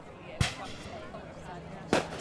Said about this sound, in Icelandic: Neiðarblísum var skotið á loft og fólk fóru að flikjast upp á dekk til að fylgjast með og fá fréttir.